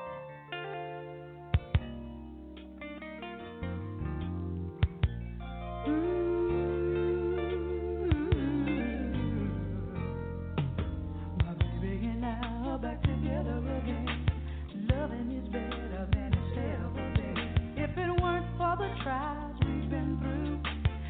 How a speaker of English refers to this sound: I'm gonna jump into some more music.